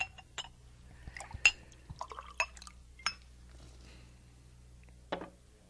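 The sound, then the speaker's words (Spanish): A drink is poured into a glass: a burst of splashing liquid with a few sharp clinks of the glass, then quieter trickling and one last clink near the end. No one speaks. “¿No cree usted que esto se merece otro trago?”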